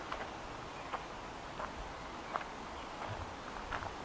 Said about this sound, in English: as we continue to walk walking off our troubles and stresses of the day.